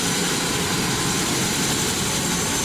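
A helicopter flies, its engine and rotor making a loud, steady roar that fills the whole stretch with no pauses and no voices.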